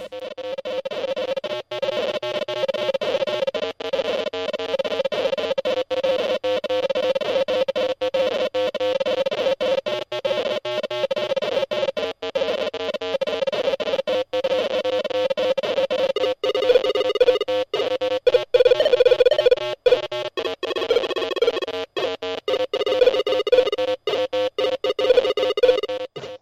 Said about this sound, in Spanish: Y ahora mismo va a empezar a sonar este pedazo de tema de PC Speaker de la versión de PC.